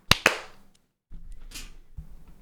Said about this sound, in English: So we shall do a clap sync in three, two, one.